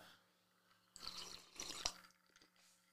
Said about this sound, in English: I need another sip of my vodka.